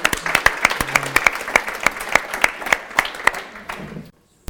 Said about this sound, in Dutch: mag ik een hartelijk applaus voor jou en daarna het podium.